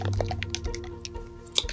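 A small bottle of bubble solution is shaken, giving a quick series of wet sloshing and squishing bursts in an uneven rhythm over roughly two seconds.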